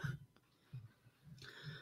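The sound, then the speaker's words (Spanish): A few soft, muffled coughs from a single person, coming from behind a throne, spaced unevenly over a couple of seconds, the last one a little sharper and breathier. Quiet, no talking. “Y entonces sois una tos.”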